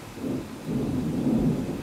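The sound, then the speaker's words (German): A deep, rolling rumble of thunder fills the air, low and sustained, swelling slightly in the second half with no voices present. “Oh Gott, es donnert richtig.”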